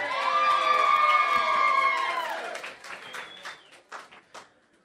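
A crowd cheers with loud, sustained high whoops and shouts for a couple of seconds, then the cheering drops away, leaving scattered applause that fades out.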